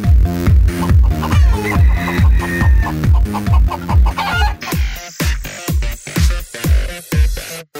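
Loud rooster calls chopped into a rapid, rhythmic pattern over a driving musical beat, repeating steadily for several seconds with no talking, then breaking into sharper, scattered hits at the end.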